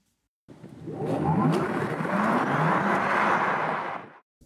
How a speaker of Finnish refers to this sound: Tämähän ei ole iso auto, tämä on keskikokoinen sedani, tai Kyllä. hatchback oikeastaan.